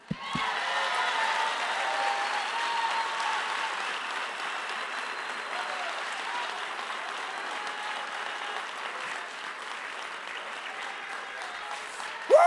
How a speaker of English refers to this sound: Clap your hands now.